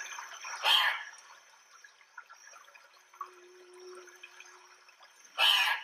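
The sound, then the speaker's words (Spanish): Two loud, harsh squawking calls of an Andean cock-of-the-rock, one near the start and one near the end, separated by a stretch of quiet forest ambience with faint scattered sounds. “El gallito de roca es un animal frugívoro, se alimenta de grandes frutos que leen los árboles de la zona andina. Su sonido es el siguiente.”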